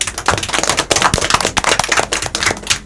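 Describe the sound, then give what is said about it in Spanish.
A small group applauds, a dense, irregular patter of sharp hand claps running steadily and fairly loud for about three seconds, with no one speaking over it. “gracias por habernos acompañado, nos aplaudimos.”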